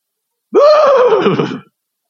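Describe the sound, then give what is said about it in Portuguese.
A single loud horse whinny, rising sharply then descending in a shaky, vibrating tone, lasting about a second with no other sounds around it. “Eu fico sonhando, eu naquele cavalo branco.”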